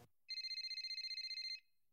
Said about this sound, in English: One afternoon in May, Steve is at work when his phone rings.